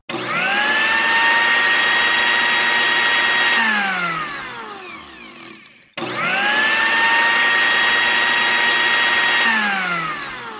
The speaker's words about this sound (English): There's half a cup of pineapple juice. There's half a cup of Greek yogurt. There's a handful frozen mango. There's a handful frozen pineapple. There's one banana and a small piece of grated ginger. Let's put it in the blender.